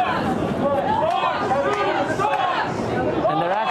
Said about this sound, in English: A lot of people uh, in the crowd are, are, are, not wearing masks. We're, we're keeping a, a respectful distance, um, but a loud and very boisterous crowd. You'll start hearing them uh, start up here